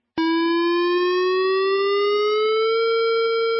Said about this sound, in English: That is the sound you never want to hear. It is the sound of a warning siren going off at a nuclear power plant.